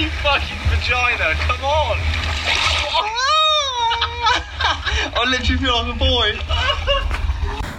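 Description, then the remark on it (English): Steady splashing and churning of ocean water runs under excited shouting and laughter, with one long, high wavering shriek midway as a person wades into cold surf for their first time in the ocean. “this is the first time we got in the water”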